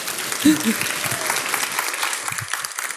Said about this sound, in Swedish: En stor applåd!